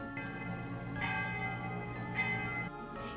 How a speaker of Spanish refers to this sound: En ese momento las campanas sonaron.